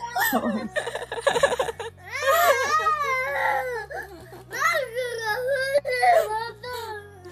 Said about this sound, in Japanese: 風船が割れたトラブルが発生。うう風船割れて泣いてる。